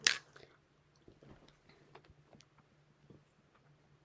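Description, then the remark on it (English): Chewing and biting on a Ring Pop hard candy, with a sharp crunch at the start followed by irregular wet clicks and crackles, quiet, with no talking. “I hope you can hear me struggling Shopping. to eat this fucking ring pop right now.”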